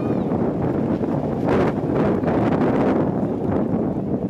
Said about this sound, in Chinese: 现场还可以听到咻咻的强劲风声，原来都是瞬间阵风惹的祸。高雄港二港口中午平均风力达六到七级，接近轻度台风。黄色小鸭站在出海口，直接受风，压力山大。